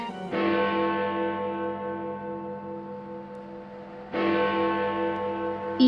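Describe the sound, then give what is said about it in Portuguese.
A large bell tolls the hour, striking twice several seconds apart, each deep, resonant strike ringing out and slowly fading in a long, humming decay. No voices are heard. “assim que a última badalada soou, ele lembrou da profecia do finado Jacó Marley”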